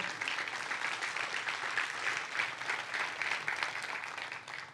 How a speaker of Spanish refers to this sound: ¿Se atreve a darle un aplauso a Dios por eso?